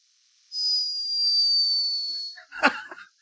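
A sleeping hummingbird's snore, recorded by a scientist in Peru: one long, thin, high-pitched whine that drifts slightly lower over about two seconds, followed by a brief scratchy chirp. No one speaks.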